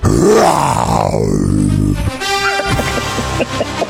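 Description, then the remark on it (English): A person does a loud, growling imitation of a lion roar for the Detroit Lions on KZOZ radio, one long rough rising-then-falling vocal burst lasting about two seconds, followed by softer rumbling and a few short voiced bits. “That's a lion.”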